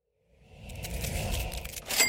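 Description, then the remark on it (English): A Shopify sale notification, a jingly cash-register cha-ching of coins, rises out of silence over rustling outdoor noise in a backyard, ending in a bright, ringing chime. No one speaks. “I didn't think I would be able to hear the sound of yet another Shopify sale from out here in my backyard”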